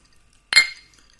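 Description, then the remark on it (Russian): A single bright clink of glasses touching in a toast in Moscow, fairly loud, ringing briefly before fading into near silence. “И чокнемся.”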